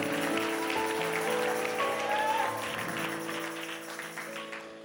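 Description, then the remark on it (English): Dense, continuous clapping from a large church audience during a sermon fills the space, a broad patter of many hands with a steady tone sustained underneath, gradually easing off toward the end. “Come on, if you believe it, clap your hands again and shout to the Lord.”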